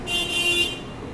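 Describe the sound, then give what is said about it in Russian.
Car horns honk in a quick cluster of short, overlapping toots, then fade into a steady traffic hum for the final half second. No one speaks. “вот так вот бибикают”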